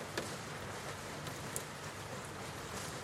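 Steady rain pours down in a dense, continuous hiss, with occasional sharper drops tapping. No voices, just the even wash of rainfall throughout.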